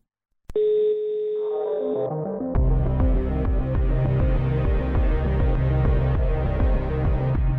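A telephone line gives a steady electronic tone, then a short falling run of beeps, then a busy, looping electronic melody of ringback music, loud with no one talking, while calling a witness.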